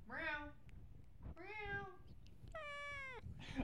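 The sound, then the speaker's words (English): A cat named Cindy meows three times, each call loud and drawn out, with short pauses between them and a faint low rumble of background noise. “Here she comes. She's here loud right now.”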